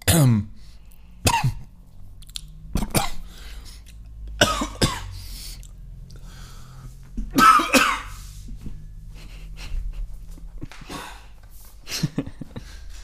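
A drawn-out coughing fit: sharp harsh coughs arrive in irregular bursts, some doubled, with throat clearing and breathy pauses between them. No talking.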